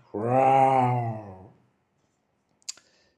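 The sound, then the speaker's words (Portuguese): A voice imitates a big tiger's roar: one long, loud, low-pitched growling cry lasting over a second, followed after a pause by a brief, sharp click. “E o tigre grande solta um rugido.”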